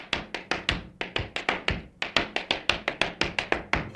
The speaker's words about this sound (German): Und wir haben hier auch noch Schuhe mit einem hohen Absatz. Ziemlich laut.